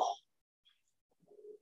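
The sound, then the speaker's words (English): A female Australian Shepherd and boxer mix dog lets out one loud, sharp bark, followed after a short pause by a quieter, low, drawn-out vocal sound. “Sorry about the barking dog there.”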